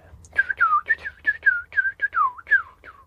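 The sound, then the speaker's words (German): Someone whistles an imitation of fireworks: a quick run of about nine short whistles, each swooping down in pitch, fairly loud and steady in rhythm, with no talking. “Das soll das Feuerwerk sein.”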